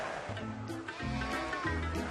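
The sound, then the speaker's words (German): Steady, loud rush of cold Atlantic surf washing onto a beach in Senegal's capital, where people wash sheep in the sea; a continuous hiss of breaking water, with low, indistinct voices or calls in short bursts beneath it. “Selbst Warmduscher müssen rein in den kalten Atlantik.”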